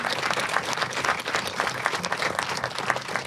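An audience applauds steadily, many hands clapping in a dense, even wash of sound that stays loud throughout with no voices standing out.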